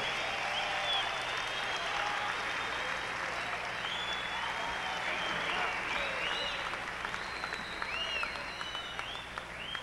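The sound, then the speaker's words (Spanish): An audience claps steadily for about ten seconds for a pianist at an evening show in the DF, a dense, loud wash of applause, with a few high whistles cutting through near the end as the clapping begins to thin slightly. “Un aplauso para Laura Vázquez, lujosa pianista esta noche aquí en el DF.”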